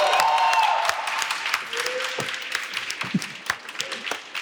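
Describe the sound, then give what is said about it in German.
A crowd claps and applauds steadily, loud at first and then thinning into scattered, irregular claps, with a short whistle-like tone near the start. “Einen ganz herzlichen Applaus”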